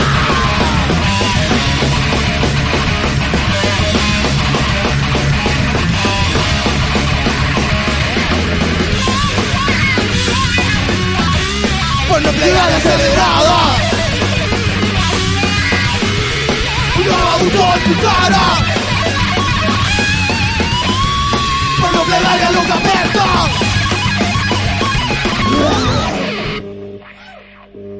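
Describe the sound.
A loud, dense song plays continuously with shouted vocals over heavy, driving instruments, filling the whole clip before cutting off abruptly near the end.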